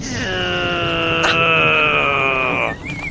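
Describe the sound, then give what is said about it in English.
A voice imitates a sword being sharpened on a spinning grinder: one loud, sustained whining tone that rises slightly in pitch for a couple of seconds, then cuts off. “where somebody's sharpening a sword on a on a spinning um, grinder kind of thing.”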